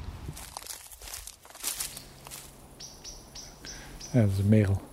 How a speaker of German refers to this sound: Das ist die Amsel. Die ist nicht gewohnt, dass wir hier sind. Ist nicht gewohnt, dass wir hier sind.